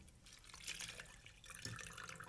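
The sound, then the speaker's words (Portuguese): Water from a small bottle pours steadily into a coffee machine, a continuous splashing gurgle that rises and falls over a couple of seconds, fairly quiet, with no voices. “Despejar aí a malandra aí para dentro.”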